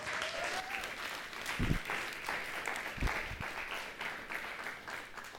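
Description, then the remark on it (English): An audience claps steadily for a guest coming up to teach, a dense patter of many hands at an even, moderate loudness throughout, with a few sharper individual claps standing out now and then. “So why don't you give Matt a round of applause as he comes teaches with us today.”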